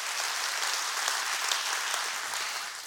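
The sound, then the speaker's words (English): A church audience claps their hands together during a sermon in a dense, steady burst of applause, many overlapping claps forming a continuous crackling wash at even loudness throughout. “Come on, let's clap our hands real big.”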